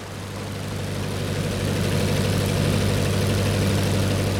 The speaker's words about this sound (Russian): Но что это за гул над Волгой? Кажется, мы с вами забрели уже в 20 век. 30 июля 1927 года на высоте одного километра над Волгой пролетает гидроплан